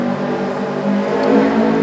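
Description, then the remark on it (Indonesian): A loud motorcycle engine roars, its buzzing drone swelling slightly as it speeds past on the street beside the roadside during Ramadan, with no voices over it. “tetap aja ada motor ngebut mah ya nah, walaupun Ramadan juga iya, ya motor ngebut nggak sopan ya.”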